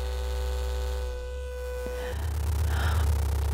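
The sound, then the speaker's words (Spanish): A vibrator, worn inserted like a tampon with the vibrating part left outside and remotely controllable through an app, is held up to the microphone and buzzes with a steady, unchanging pitch and a heavy low hum for about two seconds, then the tone cuts out and a rougher low rumble carries on. No one speaks. “Allá, ahora sosténlo que lo haremos vibrar.”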